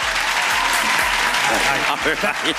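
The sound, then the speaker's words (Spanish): An audience breaks into steady, dense applause that holds at full strength throughout, with a few voices calling out over the clapping toward the end; the applause is a vote by those against pardoning simple possession of marijuana. “Aplauso.”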